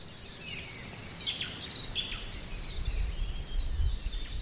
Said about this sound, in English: A simple walk becomes an adventure in a natural playground set to a soundtrack of humming bees and native birdsong.